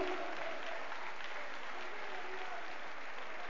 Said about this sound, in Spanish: Mi alma un aplauso, alabanza grande al Dios Todopoderoso.